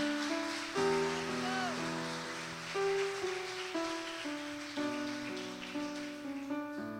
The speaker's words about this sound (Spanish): Gente madura Vamos, usted le está aplaudiendo al Padre, vamos. Aleluya.